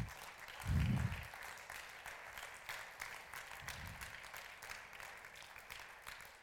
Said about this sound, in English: Let's stand and we are going to applaud the Lord Jesus Christ. He's here. Come on, let's applaud the Lord Jesus Christ. Let's hear.